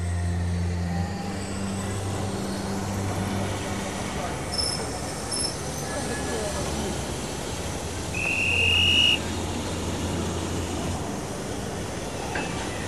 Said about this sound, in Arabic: بعد إذنك فانني اود العوده لمقصورتي لاعداد حقيبتي فالقطار يوشك ان يصل الى محطه لندن